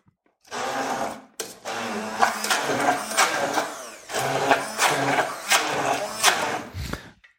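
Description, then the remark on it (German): An immersion blender whirs loudly through a thick hummus paste with cumin and olive oil in several bursts, its motor pitch straining and rising as it churns, with brief pauses between pulses. “Das Ganze soll sich ja zu einer Paste verbinden. Und das machen wir jetzt einfach mit dem Pürierstab.”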